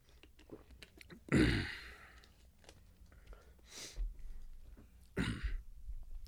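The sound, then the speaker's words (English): Two forceful coughs with throat clearing from someone with a slight cold, separated by a few seconds of quiet, low-level rustling; one bursts out early, another near the end. “I have a cough just because I have like a little bit of a cold.”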